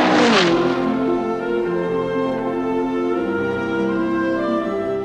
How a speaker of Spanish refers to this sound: Yo he besado un automóvil terminando una carrera. Es una música, el motor, es algo que no se puede describir mucho, sobre todo cuando el auto le está dando satisfacción.